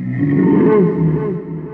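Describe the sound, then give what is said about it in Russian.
A sea monster's deep, loud roar bellows out, a rumbling, wavering low cry that swells and then eases off over a couple of seconds, with no voices. The monster is answering a lighthouse foghorn. “Чудовище отозвалось.”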